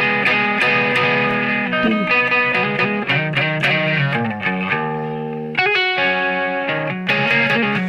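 Chords on an effects-laden, slightly distorted guitar shift and ripple as the player picks around the chords, while a high top note keeps ringing steadily above them, loud, with no voices.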